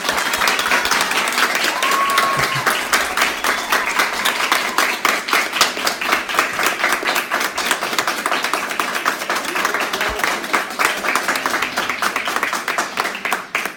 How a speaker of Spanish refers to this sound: Y pues aquí está un aplauso que le quieren dar todos los asistentes que están aquí para ustedes.